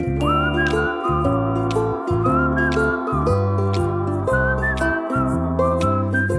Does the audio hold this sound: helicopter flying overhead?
no